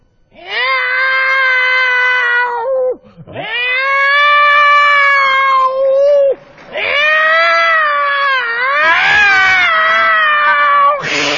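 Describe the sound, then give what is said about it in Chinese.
In a comedy skit, a person imitates a cat's meow for their mother with four long, loud, wailing yowls, each drawn out with wavering, rising and falling pitch and brief breaks between them, like cats caterwauling. “妈，我给你学一猫叫， 你还会猫叫？”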